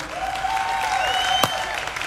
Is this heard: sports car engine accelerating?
no